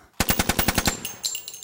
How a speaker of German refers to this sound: Und was Sie hier hören, ist ein Maschinengewehr.